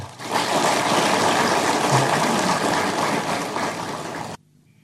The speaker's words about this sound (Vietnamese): đề nghị các đồng chí cho một chàng vỗ tay